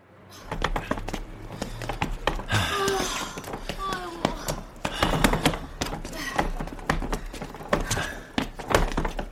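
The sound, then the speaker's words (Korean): Hard plastic wheels of a pink suitcase clatter steadily over re-laid sidewalk paving blocks as it is pulled along toward Hotel Haeundae, a continuous rattle of rapid clicks and knocks over a low rumble, with faint voices and street noise in the background. “플라스틱 바퀴가 달그락거리며 시끄럽게 울었다.”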